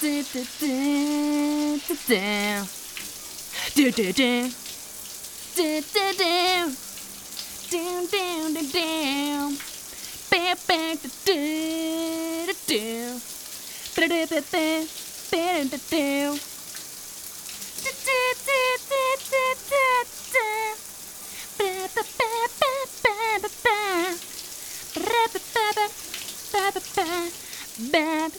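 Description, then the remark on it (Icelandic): Steady hissing spray of shower water runs throughout, continuous, while a person sings loudly and proudly over it in long melodic phrases. “Út um allt land eru reglulegir tónleikar í styrtuklöfum landsmanna.”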